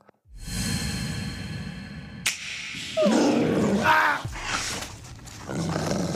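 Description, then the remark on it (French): A wolf snarls and growls ferociously, a loud, continuous rasping rumble with sharp vicious bursts as it lunges at an old man and attacks, no voices present. “Sans l'ombre d'une hésitation, le loup bondit sur le vieillard.”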